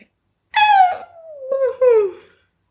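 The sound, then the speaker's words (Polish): A short sound cue marking the end of a news segment: a loud, meow-like wail that slides downward in pitch, followed by a second swooping cry, lasting about two seconds with no talking around it. “To był tak, sygnał tak. dźwiękowy oznaczający zakończenie segmentu newsowego.”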